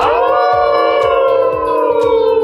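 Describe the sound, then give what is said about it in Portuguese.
Several voices of the Alcateia Empreendedora group from Caçador, Santa Catarina, newly joined by more members, howl together like wolves, a loud sustained chorus of layered tones that starts high and settles into a long, steady, wavering note. “Você pode ter notado que o nosso uivo hoje está mais incorporado, porque novos lobos se juntaram à nossa alcateia e a gente tem o prazer de apresentar todo mundo a partir de agora.”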